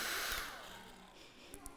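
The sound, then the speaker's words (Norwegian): A hair dryer blows on water to make waves, roaring with a steady, broad whooshing hiss that slowly eases off in loudness, followed by a couple of faint clicks near the end. “Eh, og de bølgene blir jo på en måte laga av vind, som jeg har her, i form av en hårføner som blåser på vannet, og så lager det bølger som gjør at, at båten liksom synker, da.”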